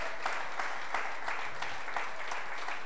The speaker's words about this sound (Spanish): Dele la gloria al Señor, hermano. Él es digno de recibir su aplauso. Él es digno de recibir su alabanza.